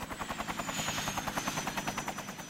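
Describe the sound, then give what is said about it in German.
A helicopter flies Santa Claus into the Maracanã stadium for a Christmas show, its rotor blades thumping in a fast, steady rhythm over a whining turbine, loud and continuous with no voices. “Der Weihnachtsmann lässt sich per Hubschrauber ins Maracanã zur Weihnachtsshow einfliegen.”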